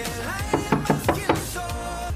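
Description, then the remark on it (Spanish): A quick series of about five sharp knocks in an uneven rhythm, moderately loud, with steady electronic music playing underneath. “Golpe, ahí golpeé, golpeé, golpeé, yo acá ocupado.”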